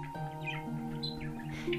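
Three budgerigars in a large aviary inside a building chirp excitedly in quick, scattered bursts, soft, over a steady low humming tone that runs underneath the whole time.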